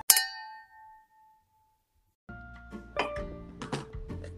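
Two drinking glasses, one of beer and one of All-Free non-alcoholic beer, clink once in a toast, a bright ringing ding that fades slowly over about a second and a half, followed by a pause and then busier, muddled sounds.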